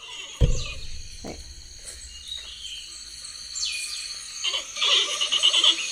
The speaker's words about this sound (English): Wait, this is a big panda. Okay, let's hear that. Let's hear the big panda.